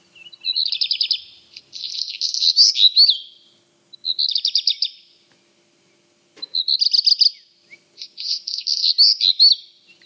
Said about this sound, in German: Ja, das ist der Hausrotschwanz. Ja, ja, das erste Trillern ist so verwirrend.